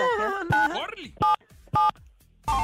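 Phone keypad tones dialing a number: a few short, loud dual-tone beeps spaced apart, following a brief swooping, warbling tone at the start.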